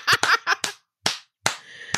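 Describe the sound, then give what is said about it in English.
A person does the "essential worker clap", clapping their hands about six times: a quick burst of four sharp claps followed by two slower, spaced-out ones, each crisp and fairly loud with brief pauses between. “You better do the essential worker clap.”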